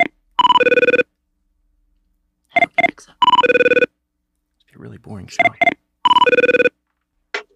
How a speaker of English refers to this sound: All right, here we go. All right, it's it's ringing.